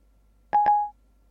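A brief electronic telephone dialing tone as a phone call is placed, a steady mid-pitched beep under two quick soft clicks, lasting under half a second against silence.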